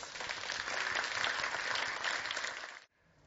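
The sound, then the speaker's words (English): A sustained burst of audience applause for two people who came on stage, dense overlapping clapping from a crowd at steady volume for a few seconds before cutting off abruptly into near silence. “I want to thank you two for coming on stage. Uh, please give them a round of applause.”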